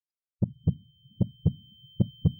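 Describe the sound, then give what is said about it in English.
A heartbeat pounds in someone's ears in steady lub-dub pairs, three heavy double thumps, with a faint high-pitched ringing tone humming continuously underneath. “hard to make out over the sound of my heart pounding in my ears.”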